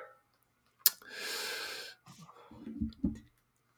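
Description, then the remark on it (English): A single sharp lip smack pops out, followed by a long breathy exhale and some faint low mouth and throat noises trailing off. “Are you ready now that I just smacked my lips right there?”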